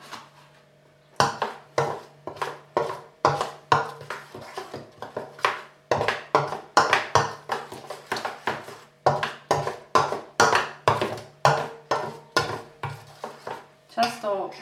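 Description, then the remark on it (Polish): A spoon stirs thick potato pancake batter made with potatoes and eggs in a bowl, mixing to check its thickness, scraping and clacking against the sides in a quick, steady rhythm for several seconds, with no one talking. “Więc ja po czterech kontrolnie mieszam.”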